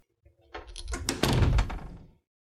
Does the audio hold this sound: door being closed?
yes